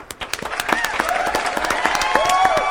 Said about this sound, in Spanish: Así me gusta mi público que aplaudan con mucho ímpetu y con ganas y con todo.